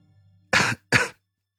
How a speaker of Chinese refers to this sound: 劫后余生的宋哲剧烈的咳嗽了起来